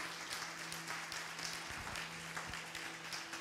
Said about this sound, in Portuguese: Temos três visitantes, oh glória! Você pode aplaudir esses visitantes bem forte?